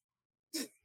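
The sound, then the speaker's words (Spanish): A single sharp sneeze bursts out after a moment of silence, loud, with a brief breathy tail as it fades. “Salud.”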